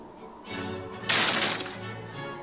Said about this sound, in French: tirant avec sa main vigoureusement à lui, il fit craquer et se fendre et sauter le tout en morceaux. Si bien que le bruit de bois sec et sonnant le creux porta l'alarme et fut répercuté d'un bout à l'autre de la forêt.